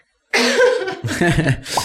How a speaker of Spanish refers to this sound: No puedo parar de toser.